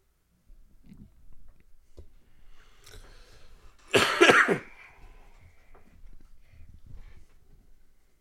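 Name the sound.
repeated coughing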